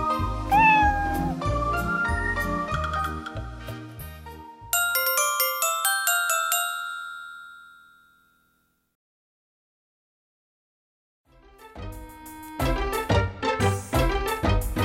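A single short cat meow rises over a bouncy musical tune at the start, followed by ringing chime notes that fade into several seconds of silence before the music returns.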